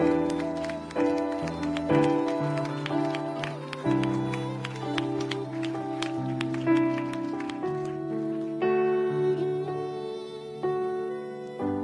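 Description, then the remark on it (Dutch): Scattered clapping from an audience during a church service runs under steady, sustained keyboard chords, the claps sounding as quick irregular bursts alongside the held music throughout. “Zo applaus geven aan God die het doet.”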